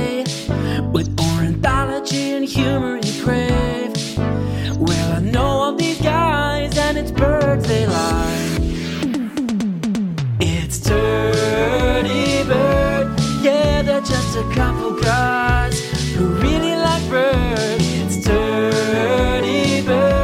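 Loud, full-band rock music plays continuously with driving drums, bass and bright harmonic instruments, a brief breakdown near the middle before the full arrangement returns; no one speaks.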